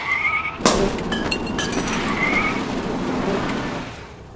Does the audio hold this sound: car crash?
yes